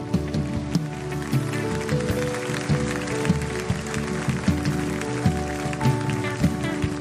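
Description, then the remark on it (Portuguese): An audience claps for Jesus steadily for several seconds, a dense, even patter of many hands, with sustained keyboard chords playing underneath. “Pode aplaudir a Jesus.”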